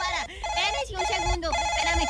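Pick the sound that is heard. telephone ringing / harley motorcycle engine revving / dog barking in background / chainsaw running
telephone ringing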